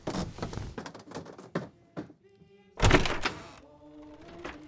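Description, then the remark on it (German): Heavy handling of a door: a quick run of knocks and clicks, then a loud solid thunk as it swings, followed by a low lingering hum. “Ich warf mir den Morgenmantel über und ging zur Tür.”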